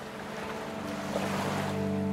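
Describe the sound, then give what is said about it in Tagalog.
Sea waves wash steadily against the seashore at nightfall in a continuous, fairly loud rush, with a low droning hum underneath and a hint of wind. No one speaks. “Pero ginabi na si Mang Celso sa paghihintay sa tabing dagat.”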